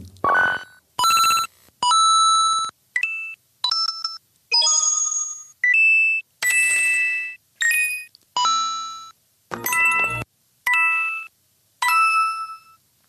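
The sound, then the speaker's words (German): A rapid series of short, bright chiming video game coin pickup jingles, around a dozen distinct bell-like tones in different pitches and timbres showing how the coin sound has changed since 1985, each loud and clean with brief gaps between them and no talking. “die Münze sich seit dem, dem ersten Super Mario-Spiel 1985 und seitdem hat sich der Sound der Münze verändert”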